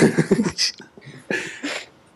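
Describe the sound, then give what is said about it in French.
A few short, rough coughs coming in quick bursts with a brief pause between them, preceded by a low voiced throaty sound. “en fait, ça fait 10 minutes que j'essaie de tousser.”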